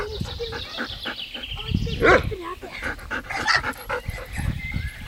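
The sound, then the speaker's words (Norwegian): A pet dog named Lykke pants in quick, rhythmic breaths, breaking into a couple of short, sharp barks partway through, with a busy background. “Hunden vår heter Lykke.”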